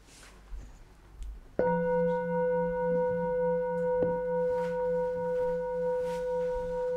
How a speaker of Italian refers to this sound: senza analizzare, senza filosofare, sentiamo tutti questo suono della campana? Sì, no? E se io vi chiedessi, stiamo sentendo lo stesso suono o un suono diverso ognuno?